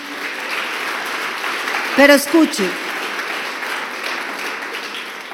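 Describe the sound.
Steady applause from a crowd welcoming first-time visitors fills the whole clip, a dense crackling wash of many hands clapping, with a man's voice briefly speaking over it partway through.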